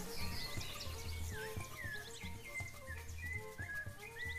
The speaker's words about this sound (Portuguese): Aí fui até a varanda daqui de casa e comecei a ouvir os passarinhos cantar e o vento batendo nas folhas das árvores.